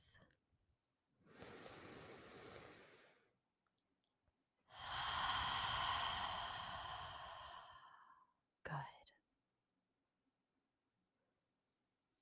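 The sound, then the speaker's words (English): A slow, deep breath drawn in through the nose during a body scan meditation, a short pause, then a long audible sighing exhale, ending with a brief soft sound before quiet. “Close down your eyes and take a deep breath.”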